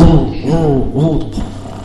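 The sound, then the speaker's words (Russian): A voice imitates a gurgling, bubbling wet cough with a few rough, rumbling bursts that rise and fall, fairly loud, over a low burbling undertone. “Кашель вот такой, бур-бур-бур-бур, бурчит там, клокочущий кашель такой.”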